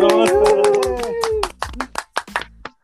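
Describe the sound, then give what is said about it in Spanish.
An audience welcoming a guest being introduced claps in a loud, steady rhythm while voices cheer and shout over the first half, then the clapping continues alone as sharper, scattered claps before fading out. “Y más ni menos que recibamos con muchos aplausos”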